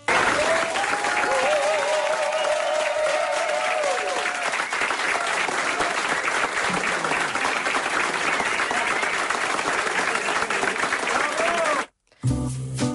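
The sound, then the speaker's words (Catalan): Sustained applause from a large crowd at a cocktail bar as bartenders are brought in behind the bar, a dense wash of clapping that stays loud and steady for about twelve seconds before cutting off abruptly, with a few faint voices mixed in. “Clar, els aplaudiments van durar molta estona no els hi havia passat mai, ningú els aplaudia per fer un còctel abans, no?”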